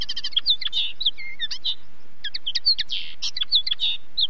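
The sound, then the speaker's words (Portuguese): A small bird chirps in quick, bright bursts, a rapid series of high tweets with short pauses between phrases, clear against a quiet background with no talking. “E a resposta correta é o passarinho.”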